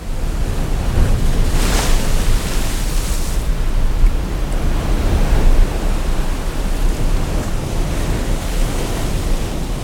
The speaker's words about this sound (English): For example, on Irish coast, you will have among these 10 layers one dedicated to the ocean and the waves,